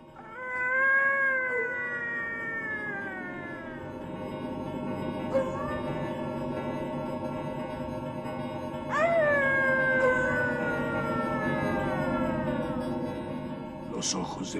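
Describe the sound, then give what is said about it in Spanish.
A chorus of many animals howling in the distance from the bottom of a valley at dawn, long wavering cries that slide downward in pitch, rising in two separate swells over a steady low background rumble. “Al mismo tiempo oí, procedente del fondo del valle, el aullido de numerosos”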